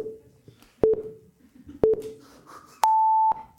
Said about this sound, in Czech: Spouštím odpočet jako úplně po každý na té soutěži.